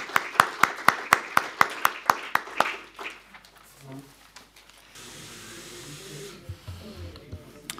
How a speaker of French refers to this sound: Il est, il est temps de céder la place à la troisième et dernière table ronde, non sans avoir applaudi une dernière fois nos trois intervenants.